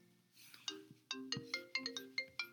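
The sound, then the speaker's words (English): A melodic phone ringtone plays alone through a computer linked to the phone, a quick sequence of bright electronic tones with sharp onsets, fairly loud and slightly tinny. “Didn't even know that my phone was linked up to any computer.”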